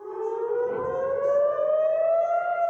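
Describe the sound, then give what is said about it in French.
Air raid warning sirens wail steadily in central and southern Israel around 6:30 in the morning as rockets are fired from the Gaza Strip: a loud sustained tone slowly rising in pitch with layered harmonics, sounding continuously without any voices. “Très vite, les sirènes d'alerte retentissent dans le centre”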